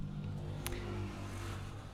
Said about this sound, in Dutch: Oké, okay, kwam even de motor langs.